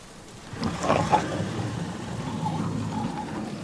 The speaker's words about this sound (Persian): میبینم که زیر بارون با خودت خلوت کردی